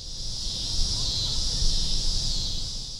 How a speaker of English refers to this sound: Cicadas. I'm Curious City producer Jason Marck, and Amy feels like these cicadas that are driving her nuts seem louder than usual. And she wants to know are they actually louder this year? Are there more of them this year?